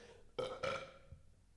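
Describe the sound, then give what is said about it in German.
A loud, throaty burp from a neighbour at the door rumbles out in two quick pulses, voiced and resonant, fading into quiet with no talking. “Sorry, Nachbar, der stark vor der Tür, hat gerülpst.”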